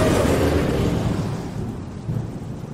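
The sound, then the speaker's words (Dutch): A deep, rolling rumble of thunder fills the air, loud at first and slowly fading, with a soft hiss like rain underneath and a brief swell near the end. “Dus laten we het bumpetje van het weerbericht er even ingooien.”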